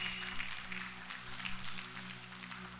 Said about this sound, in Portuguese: Isso, pode aplaudir se você está compreendendo.